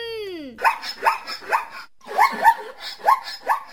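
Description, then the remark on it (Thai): A zebra calls: a drawn-out falling whine gives way to about six sharp, dog-like barking yelps in a quick, steady rhythm, loud, with no talking. “เอาอย่างนี้ค่ะ ไปฟังเสียงร้องของหมาลายกัน”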